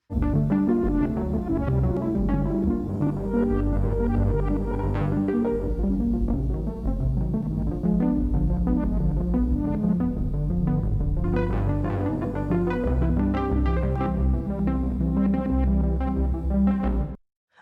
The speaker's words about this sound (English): Now I'm going to use a Prophet 10 analog synthesizer for an arpeggiation, like a soft arpeggiation sound. I'm using the tensor to create somewhat of a reverse effect.